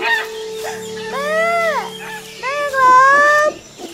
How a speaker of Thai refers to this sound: มีห่านตัวน้อยตัวหนึ่ง เดินหลงทางมาจากป่าแดนไกล มันได้ร้องเรียกแม่ด้วยความน่าสงสาร